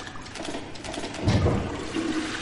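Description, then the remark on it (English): A toilet flushes with a steady rush of water, swelling into a louder gurgling surge midway before settling back into a continuous hiss. No one speaks. “That Tony made a rubbish pun and then you flushed the toilet.”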